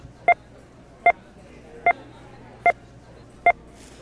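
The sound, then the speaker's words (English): Five short electronic beeps sound at a steady, even pace, each a crisp two-tone blip, over a faint low hum with no talking; each beep represents $100,000 of goods bought in America. “While you listen to those five beeps, people just spent half a million dollars.”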